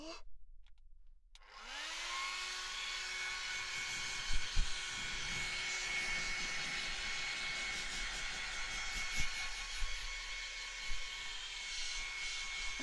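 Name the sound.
hair dryer blowing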